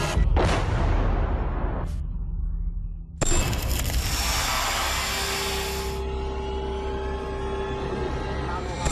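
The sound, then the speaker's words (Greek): Anti-aircraft gunfire echoes over the centre of Kyiv as aircraft fly overhead: a few heavy bursts, then a longer loud stretch of roaring fire, followed by a low rumbling background that fades somewhat afterward. “Η ώρα είναι 12 και 35 και πριν από λίγα δευτερόλεπτα ακούσαμε αεροσκάφη να πετούν πάνω από τον ουρανό ενώ είναι διακριτά ακόμα και τα πυρά των αντιεροπορικών που βλέπουμε πάνω από τον αέρα στο κέντρο του Κιέβου.”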